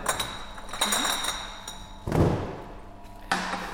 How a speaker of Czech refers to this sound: Tu lahev upevníme do stáčecího mechanismu. Takže vlastně ručně to, tady stáčíte, všechno je ručně.